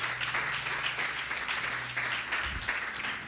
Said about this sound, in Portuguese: Quem pode aplaudir ao Rei da Glória? Vamos juntos. Vamos juntos, vamos juntos, vamos juntos.